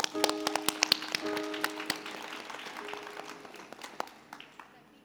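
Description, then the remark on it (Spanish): A crowd applauds with a dense stream of sharp, overlapping claps that starts strong and gradually thins and fades over about five seconds, with faint tonal hum underneath. The applause is for Nicaraguan poet and social activist Yoconda Belli, who is joining remotely. “Un aplauso para Yoconda.”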